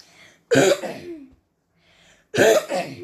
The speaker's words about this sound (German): habe wieder ein bisschen husten. Aber kein Corona, hoffe ich mal.